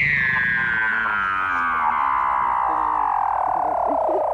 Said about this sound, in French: Tu veux que je te dise qui c'était Eh ben, c'était tout simplement un phoque, mon ami. Un phoque endormi. Un phoque qui rêve.